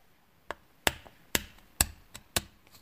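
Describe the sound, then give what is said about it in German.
A series of sharp, light taps of a thick needle on an eggshell, boring holes in the top and bottom of the egg so it can be blown out, about eight clicks at an uneven pace, fairly quiet with no talking. “Dafür muss man oben und unten in das Ei ein Loch bohren. Das macht man am besten mit einer dicken Nadel oder einem Metallstift.”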